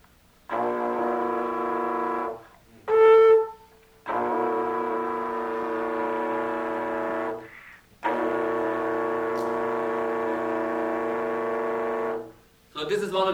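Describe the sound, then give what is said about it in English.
A wind instrument sounds long sustained tones with a hummed voice layered over them, forming buzzing chords that hold for several seconds at a time, with brief pauses between and a short higher sung note in the middle. “Also, uh, especially in this case, uh, okay, anyway, it works with all these things if you uh, not only, let's say, if you keep, keep the sung note and move the blown note.”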